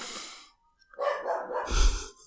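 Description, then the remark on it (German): A dog barks in a short, rough burst of several barks following a brief pause, moderately loud, with no talking. “Hm, heute mit Telefon und Hund.”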